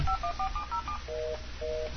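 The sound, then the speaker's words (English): A rapid run of six short dual-pitched telephone keypad tones as someone dials to call a guest, followed by two longer, lower ringback-style tones over a faint hum; no one speaks. “we're trying to call you.”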